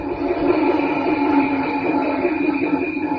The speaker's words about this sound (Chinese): 京剧的这个整个这戏的气氛，全靠这个鼓场，就是这个锣鼓，全靠这个鼓场。这个给谭元寿先生打鼓的这个谭石秀先生，是当年给他父亲谭福英先生打鼓的。所以呢，那大师，大家听这个锣鼓的时刻啊，